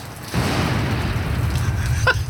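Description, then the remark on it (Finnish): A thunder sound effect for a rainy storm: a sudden loud crack breaks into a deep, steady rumble that rolls on for about two seconds, with a brief sharper crackle near the end. “Jos meillä on oikein myrskyä, niin sittenhän meillä pitää olla ukkosta.”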